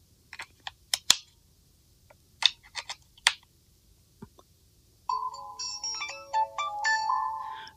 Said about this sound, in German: So, und wie ihr hört, hat mich das Telefon direkt mit der kleinen Melodie begrüßt und ich könnte jetzt direkt anfangen, das Telefon einzurichten.